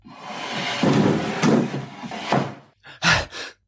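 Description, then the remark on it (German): A chair scrapes and drags across the floor, then bumps against a door with a few heavy wooden thuds as it is pushed against the door to barricade it. Fairly loud, with no talking. “Hol den Stuhl und versperr die Tür.”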